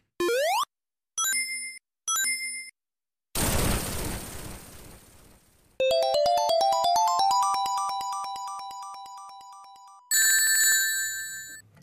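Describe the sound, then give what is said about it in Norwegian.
Retro video game sound effects cut together: a quick rising jump swoop, two bright ring-collect chimes, then a noisy crash as a ledge falls down, a fast bleeping arpeggio and a final shimmering jingle, loud and with no talking. “Og jeg tok med Sonic, eh, en lydprøve derfra òg, som jeg klippet sammen.”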